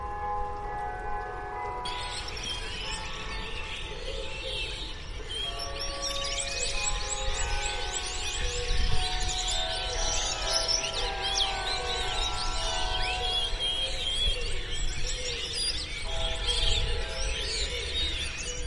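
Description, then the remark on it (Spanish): A dense chorus of birds chirps and twitters continuously, the birds fluttering around Dominicos, layered over sustained ringing bell tones and a low rumble. No one speaks. “Pues mientras el mundo siga cerrado, como dice el niño de Angélica, nos consolaremos, por ejemplo, con escuchar el canto de los pájaros que revolotean en torno a Dominicos y que me envió mi amiga Carmen.”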